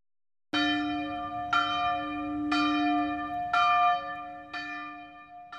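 A church bell tolls five times at an even, unhurried pace, each strike ringing out with a long shimmering hum that carries into the next, loud with no voices. The bell rings at noon for the Angelus.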